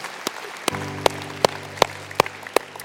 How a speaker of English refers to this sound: Everybody, would you just applaud for those who raise their hands?